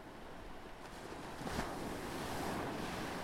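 Steady rush of ocean waves breaking on the shore, a continuous hissing wash that swells into a louder crash midway, with light wind noise and no voices.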